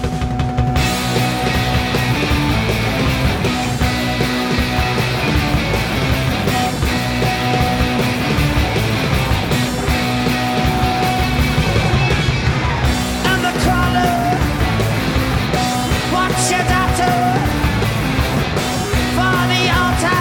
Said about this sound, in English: Yes, that's right, ladies and gentlemen, it is time to dive into a modern classic. Definitely the best live album of last year